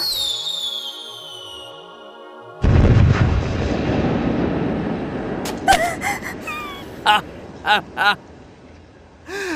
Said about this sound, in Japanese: あれは私の工夫した花火だ。金色に光る大雲のようだろう。